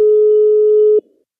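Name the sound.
telephone call tone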